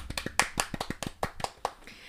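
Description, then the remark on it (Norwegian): Brief applause: a dozen or so sharp, crisp claps in a slightly uneven rhythm over about two seconds, moderately loud, with no voices over them. “App det er applaus.”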